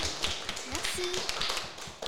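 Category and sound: crowd, audience applause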